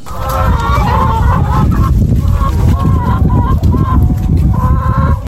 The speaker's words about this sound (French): allons voir les poules. Eh oui, à la ferme de Piamo, située à Genet, on trouve de tout. 220 poules pondeuses, des céréales, des lentilles ou encore des pâtes.